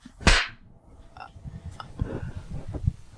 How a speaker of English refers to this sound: I'm going to count to three and we're going to clap on four. One, two, three.